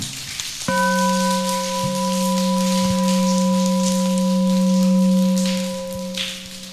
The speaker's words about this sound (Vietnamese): các con thấy là những đóng góp như thế con đáng học hỏi không cho một tràng vỗ tay thật lớn nào